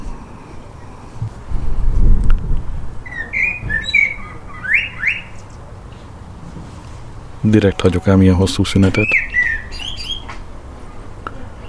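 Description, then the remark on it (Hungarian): Clear, melodious birdsong with whistled phrases repeating through the scene, while a person speaks briefly and other low background noise rumbles underneath. “Szeretem a madár hangokat.”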